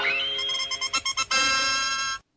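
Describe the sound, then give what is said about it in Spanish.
A bright, synthetic jingle from the cartoon Dr. Slump (Arare Norimaki), the tune that played whenever a new invention appeared: a rising tone, then a string of short staccato notes, ending on one long sustained chord that cuts off abruptly. No one speaks. “¿Te suena esta sintonía?”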